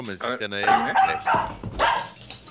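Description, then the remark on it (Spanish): A dog in a video barks and yelps in a quick run of short bursts, fairly loud, with some voice-like sounds mixed in, just before the dog touches the floor. “Se escucha justo antes de que el perro toque el piso.”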